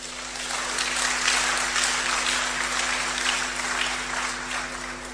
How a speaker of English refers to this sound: So just by being here, you are the top 5% of thinkers in this university. Isn't that good news? Clap for yourselves.